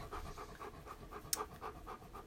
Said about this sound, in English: if you're hearing a lot of panting right now, it's the dog. It's not me.